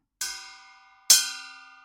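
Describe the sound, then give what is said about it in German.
A metal salad bowl is struck twice, about a second apart. Each hit gives a bright clang followed by a shimmering, ringing tone that slowly fades. No voices. “Das ist eine Schüssel aus Metall, die ich hier vor mir habe.”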